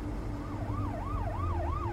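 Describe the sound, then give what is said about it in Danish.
A police car siren wails in a fast, rising-and-falling yelp, repeating several quick cycles, loud, over a steady low engine rumble with no voices; the police car has turned around and is pursuing a white Simca on small roads around Amager, Denmark. “Lidt efter passerede de en politibil, og betjentene vurderede åbenbart, at de to mænd i simkagen kørte så hasarderet, at de vendte om og fulgte efter dem.”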